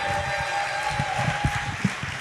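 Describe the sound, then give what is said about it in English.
A crowd claps and cheers for a comedian in a steady, dense wash of applause, with a few louder thumps and shouts rising out of it. A sustained whistle-like tone runs through. “Make some noise. Come on, make some noise.”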